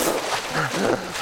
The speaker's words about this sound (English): This is the sound of a man who unexpectedly fell into cold water and instinctively is trying to swim hard.